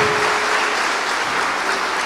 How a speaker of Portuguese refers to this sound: e aquele que concorda, dá um brado aqui, aplauda ao Senhor, louve a Ele.